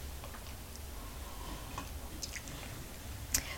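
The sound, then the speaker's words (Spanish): A quiet morning sip of hot coffee without sugar: faint mouth clicks and small cup taps over a low hum, ending in one brief, sharper slurp. No one speaks. “Que el tiempo, el clima no nos afecte demasiado, así que me voy a dar este sorbito mañanero junto a ustedes.”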